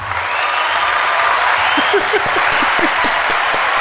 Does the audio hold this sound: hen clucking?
no